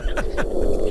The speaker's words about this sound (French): Alors ça c'est un poisson chez nous. C'est un chant d'amour encore, c'est le maigre. Et c'est une sorte de brame, c'est comme ça qu'ils séduisent, hein, ça plaît aux filles. Et on l'entend depuis la surface.